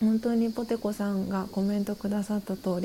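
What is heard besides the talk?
cicadas singing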